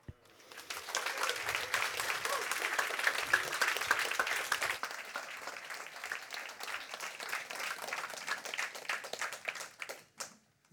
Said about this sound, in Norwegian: Og det å skrive en sånn bok i en sånn tid, det fortjener litt ekstra applaus. Dere vet at dette er kjent som applausens u-land. Det er et av de få områdene Norge ikke scorer godt. Så tenk litt på det.